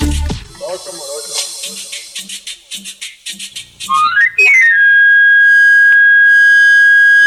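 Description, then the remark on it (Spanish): A knife sharpener's camarillo, a wooden pan flute of medieval origin, whistles on a Mexico City street in the afternoon to announce his service: a quick rising run of shrill notes, then one long, steady high tone that carries loudly to the end, following a stretch of pulsing background sound. “Ese silbido inconfundible es producido por un camarillo, una flauta de madera de origen medieval que basta como anuncio sobre su servicio”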